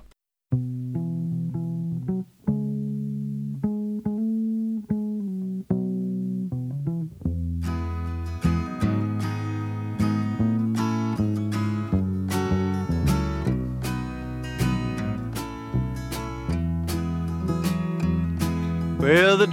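A folk song plays, opening with a soft, sparse instrumental intro before a fuller band with bright strummed and struck notes comes in and carries on steadily at moderate loudness.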